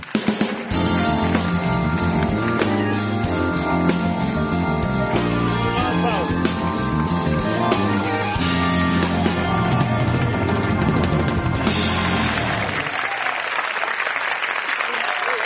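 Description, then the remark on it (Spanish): Loud, sustained audience applause welcoming a guest for about fifteen seconds, with upbeat music playing underneath until the clapping carries on alone near the end. “Lo vamos a recibir eh, con un gran aplauso.”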